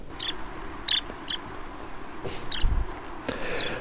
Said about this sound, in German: Aber der Ruf ist nun mal nicht irgendwie das Schicke von diesem Vogel, sondern die Imagination, dass der dann weiterzieht. Um dann, wenn es im Mai irgendwann in Nordsibirien auch etwas wärmer wird, seine Brutgebiete zu finden, wo kein Mensch ist.